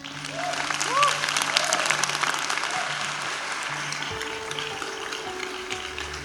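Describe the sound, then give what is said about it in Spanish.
An audience claps steadily for a group of young people, a dense, even wash of applause lasting several seconds, with faint tonal sounds and a low hum in the background and no clear speech over it. “Démosle un aplauso a estos chicos.”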